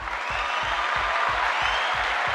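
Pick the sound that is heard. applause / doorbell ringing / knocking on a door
applause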